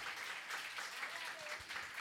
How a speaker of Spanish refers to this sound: ¿Qué tal si le damos un fuerte aplauso a toda la familia pastoral? Ellos se lo merecen, de veras que sí.